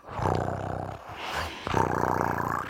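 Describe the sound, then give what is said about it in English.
A person imitates a cat with a low, rumbling, growl-like vocal sound, made in two drawn-out bursts separated by a short pause, steady in loudness. “And and the cat when it's like doing this like”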